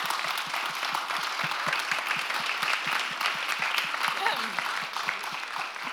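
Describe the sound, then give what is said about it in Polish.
Sustained audience applause, a dense, even patter of many hands clapping that holds steady for the full six seconds without fading. “Dziękujemy. Brawo.”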